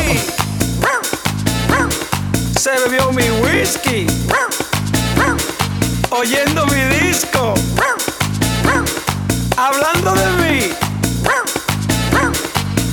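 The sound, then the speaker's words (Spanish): Dog barks and yips punctuate an upbeat, rhythmic song, repeating throughout and mixed in with the music and a singing voice. “Dímelo, perro, dímelo.”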